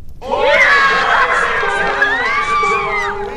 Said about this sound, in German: Ihr habt einen Spitzenschrei vielleicht gehört. Das war natürlich der Höhepunkt in diesem Jahr. Die Olympischen Spiele in Tokio, die mit einjähriger Verspätung äh, und unter besonderen Umständen stattfanden.